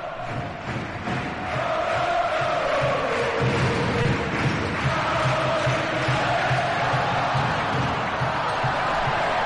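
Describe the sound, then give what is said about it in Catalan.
The basketball crowd in the Palencia pavilion roars steadily throughout a game against Penya, with Palencia trailing by 8, a dense, loud wall of voices with shouts and cheers rising and falling but never dropping away. “Escolteu el pavelló de Palència, la penya guanya de 8, el Palència perd de 8.”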